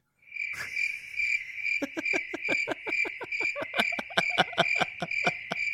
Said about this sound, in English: we, we got to get a, tr- a crickets like thing because that's where like insert crickets here. insert crickets here. I have that sound effect lined up.